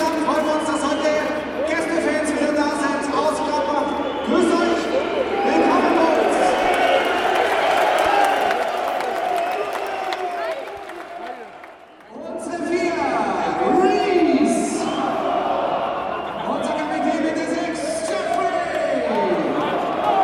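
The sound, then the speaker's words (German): A dense crowd of football spectators fills a stadium with continuous murmur and shouting, a steady wash of many voices that dips briefly into a lull before swelling back up. Attendance is limited by Covid-19 pandemic restrictions; about 900 of the spectators support the black-and-white team. “Die Beschränkungen der Corona-Pandemie greifen noch immer, sodass im Stadion lediglich so viele Zuschauer zugegen sein dürfen.”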